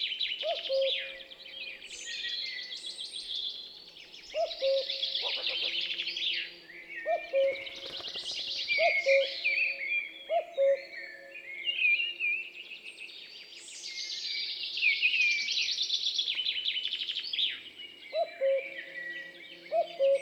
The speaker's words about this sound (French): Vous avez dit coucou. Encore un chorus du matin où apparaît un coucou qui par son chant nous offre toute la profondeur sonore de la forêt.